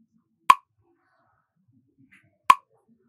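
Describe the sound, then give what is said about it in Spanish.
Two crisp metronome ticks, evenly spaced about two seconds apart, sound alone against near silence at a slow, steady tempo, pacing a spoken syllable and finger-tapping exercise. “Enfócate bien en el sonido del metrónomo.”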